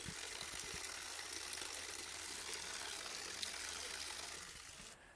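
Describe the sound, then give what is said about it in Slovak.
A small spring trickles and splashes in a steady, continuous wash of water, fairly soft, beside a chapel on a hill high above a village, with no voices, easing off slightly in the last moment. “A takisto počujem aj čurkanie prameňa, ktorý je pred nami.”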